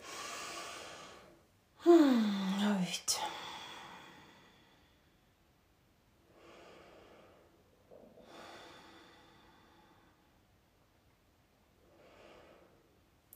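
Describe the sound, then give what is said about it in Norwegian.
A second round of a kapalabhati (frontal brain cleansing) yoga breathing exercise: a sharp, loud breath with a voiced sighing exhale, followed by three spaced, forceful breaths through the nose, with no talking. “Så altså, Kapalbhati frontal brain cleansing, så det er en ganske rask måte å rense hjernen på.”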